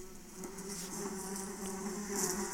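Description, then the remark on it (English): A steady, droning bee buzz sound effect, introducing a segment called Hot Buzz, hums continuously for a couple of seconds, fairly loud, with slight wavering in pitch as if the insect hovers. No voices. “We call this segment Hot Buzz.”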